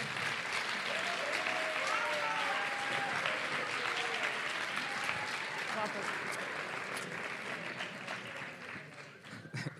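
Sustained audience applause at an award ceremony as the president of the Madrid Podcasting Association is called to the stage, a dense steady clatter of many hands clapping that holds loud for nearly ten seconds, with faint whistles or cheers rising through it before it eases slightly.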